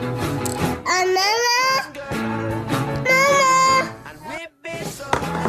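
infant crying

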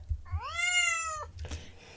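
cat meowing

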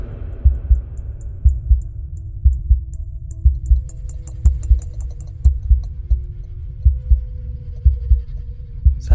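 heartbeat sound effect

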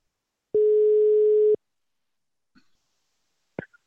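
telephone ringing tone

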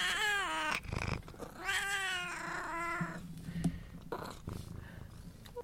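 cat meowing

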